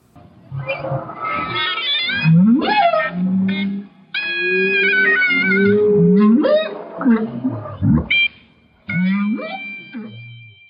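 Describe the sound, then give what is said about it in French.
Humpback whale song recorded underwater with a hydrophone off the coast of Maui in 2007, with rising moans and whoops mingling with sustained clarinet tones played by researcher David Rosenberg through an amplifier and underwater speaker, loud and continuous over about ten seconds with brief pauses between phrases. “En 2007, sur la côte de l'île de Maui, le chercheur David Rosenberg a joué de la clarinette à une baleine à bosse avec un ampli, une enceinte sous l'eau et un hydrophone, donc un micro pour capter le son sous l'eau.”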